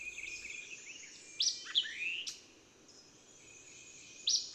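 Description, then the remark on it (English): A mockingbird sings a quick, varied string of clear, high whistled and buzzy phrases, each different from the last, with brief pauses, over a faint steady hiss of background insects. “Such a melody of notes, snatched from half the songsters of the field and forest, and uttered with the utmost clearness and rapidity, I'm sure you cannot hear short of the haunts of the genuine mockingbird.”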